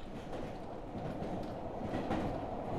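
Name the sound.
train clattering along rails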